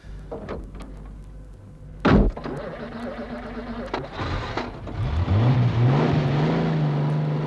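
A car door shuts with a heavy thunk, then an engine rises in pitch as the vehicle pulls away, its steady drone continuing to the end.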